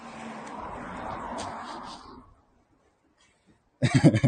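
An acquaintance's car, which they are getting into, rumbles with a broad, steady whoosh for about two seconds, then fades away into quiet before a person begins speaking.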